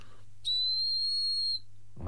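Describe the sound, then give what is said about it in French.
A small tubular terracotta whistle, a clay cylinder about 3 cm long pierced with a hole, sounds one steady, piercing high-pitched note for about a second, loud, then stops; a voice begins speaking just afterward. “Donc là, on a un son beaucoup plus aigu”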